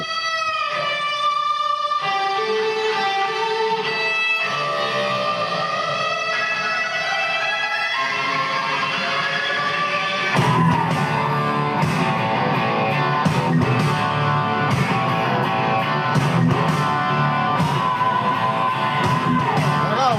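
A hard rock song, the opening track of an album, kicks off with sustained, distorted guitar chords and rising bends, then after about ten seconds the full band crashes in loud with pounding drums and driving guitars.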